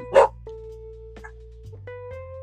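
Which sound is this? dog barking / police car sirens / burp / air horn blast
dog barking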